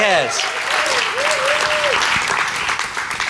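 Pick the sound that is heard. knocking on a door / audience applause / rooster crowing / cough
audience applause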